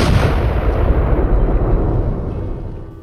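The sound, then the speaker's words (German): A loud explosion from an airplane crash, a deep booming roar with crackling debris that slowly fades over a few seconds. No voices. “wir haben mehr Flugzeugunglücke ja. im Nerdship-Podcast als ja. in jeder Romcom”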